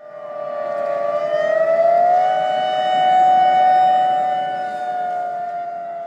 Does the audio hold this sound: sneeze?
no